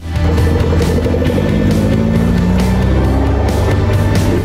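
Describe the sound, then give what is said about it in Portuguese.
An Alfa Romeo Duetto sports car engine revs loud, its growling pitch climbing steadily as it accelerates for several seconds with no voices. “Para entender essa história a partir de agora, você vem comigo, afivela os cintos e vamos acelerar.”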